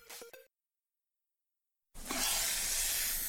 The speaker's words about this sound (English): Ah, the copperhead snake. It hisses before attacking. But that's not a copperhead. That's the Sullivan's RV freshwater tank overflowing into their black one, which is backing into their vent pipe, making for a very different kind of attack.